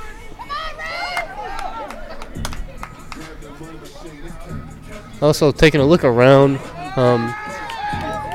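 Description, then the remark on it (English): Scattered voices of people from a different ballgame chatter in the background, rising into louder, overlapping talk partway through, while one person speaks over them. “you may hear some people in the background, but of course, that's not our game.”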